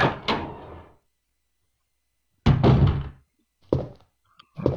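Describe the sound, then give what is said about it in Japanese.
A heavy wooden door in a video game opens with a solid thunk and creak, followed by a couple of shorter knocking clunks as it settles; loud, with no one speaking. “扉を開けて”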